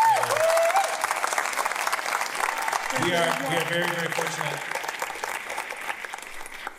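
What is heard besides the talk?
concert audience applause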